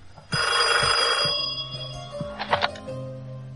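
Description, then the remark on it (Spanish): An old-fashioned telephone bell rings with a loud, sustained metallic trill for about a second, then stops, followed by quieter clattering and shuffling sounds; a call to the countess's hotel room, where her maid is slow to pick up. “Pero la doncella personal de la condesa se besa con un tal Ryder, que es el encargado del servicio del hotel, y tarda en coger el teléfono.”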